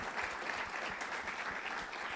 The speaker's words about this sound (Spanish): Amén. ¿Cuánto le dan un aplauso a Dios, a Cristo por eso? porque Él es humilde, amén.